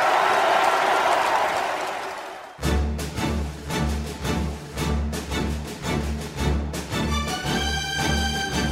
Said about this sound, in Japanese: さあ壮大な企画、えー、の音楽をかけすけど ねすごいねいやでも壮大ですよ